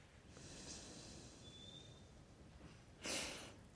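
Soft, steady nasal breathing with a low airy hiss, ending in a sharper, louder exhale through the nose near the end; alternate nostril breathing, in through one nostril with the other closed off, then out through the other nostril. Quiet, with no talking.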